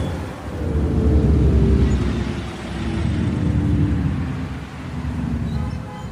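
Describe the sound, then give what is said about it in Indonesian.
A tour bus rumbles along with a deep, steady engine drone and road noise, swelling and easing in loudness a few times, with no voices. It is driving unsteadily on the way to the National Monument (Monumen Nasional). “Di tengah perjalanan, Gigi dan Juju bertemu dengan bus pariwisata lain yang nampak oleng.”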